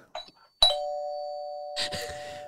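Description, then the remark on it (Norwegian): An old doorbell gives a sharp strike, then a steady, ringing tone that sustains for nearly two seconds with a faint higher overtone, heard alone; a brief rustle precedes it and a muffled clatter ends it. “Jeg fant uh, gamle ringeklokka. Den funker som faen.”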